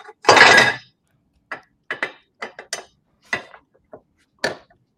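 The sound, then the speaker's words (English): Metal parts clink as a guitar headstock is unbolted: a louder rattling clatter at the start, then about nine short, sharp, irregularly spaced clicks and taps, with no talking. “Okay, now what's incredible about this? You can unbolt it.”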